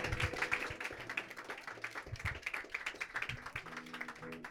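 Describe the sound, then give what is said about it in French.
An audience applauds a duo after their live song performance, a dense rattle of many hands clapping for several seconds at an even loudness, with faint low tones humming underneath. “Ça s'applaudit encore, s'il vous plaît.”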